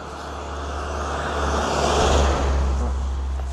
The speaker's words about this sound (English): and so, um, hold on, there's a van coming.